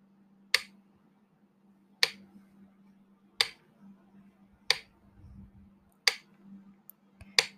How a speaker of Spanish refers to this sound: Empieza por concentrarte en el sonido del metrónomo, en su ritmo.